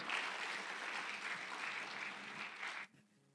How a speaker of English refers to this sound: So would you just give Mr. Steve a round of applause?